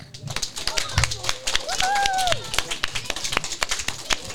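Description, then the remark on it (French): Steady applause for kindergarten children from a small group, dense irregular clapping that runs throughout, with a few high voices calling out over it. “Merci aux maternelles, on peut les applaudir.”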